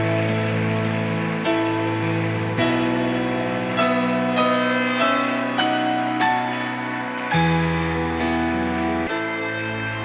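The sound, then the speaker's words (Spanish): A church audience applauds steadily for several seconds as an applause for the Lord, a dense crackling wash of clapping layered over loud sustained musical chords that shift every couple of seconds. “Denle un fuerte aplauso al Señor y que suene la trompeta.”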